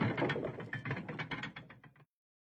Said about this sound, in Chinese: 更令他感到害怕的是，随着水车的转动，别馆内竟然响起了机械运作的声音。